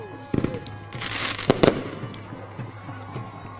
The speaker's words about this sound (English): We got fireworks at the motherfucking revolution. Fireworks at the at the motherfucking revolution.